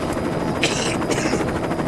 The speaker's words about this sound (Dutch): ik kijk omhoog en er komt een een trauma-helikopter aangevlogen van, eh, ik denk vanuit Eindhoven. Die, eh, hier, we moeten nu allemaal aan de kanten. Oh, die wind, die wind is ontzettend heftig.